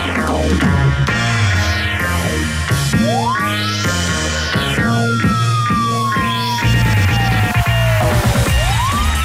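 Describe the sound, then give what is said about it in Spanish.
Wailing sirens sweep up and down several times over loud, dense music, with one long gliding tone slowly falling through the middle; no voices. The sirens mark the start of the radio show Un País Generoso on Rock and Pop 94.1. “Esas sirenas indican que es el comienzo del país generoso a través de todas las plataformas de la 94.1”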